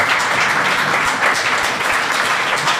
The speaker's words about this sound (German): Aber erstmal einen Applaus für unsere Gäste heute hier.